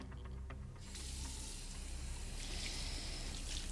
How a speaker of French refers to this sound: Je prends une douche pour essayer de me rafraîchir, je me lave.